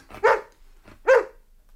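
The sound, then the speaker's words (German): A dog barks twice, two short, sharp woofs separated by a pause of about a second, fairly loud, with no talking in between. “Hm, schöner Hund.”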